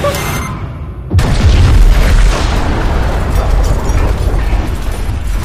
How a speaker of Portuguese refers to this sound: Caraca, cara, tem uma explosão que treme o chão inteiro e todo mundo vai ao chão.